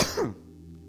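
A single short cough or throat-clearing burst from a person with COVID at the start, with a rough rasp that quickly fades into a low steady hum.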